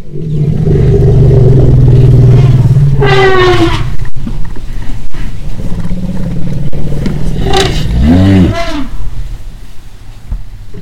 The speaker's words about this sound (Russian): Подойдя к группе, самец издает низкое урчание, на что мать оглушительно трубит.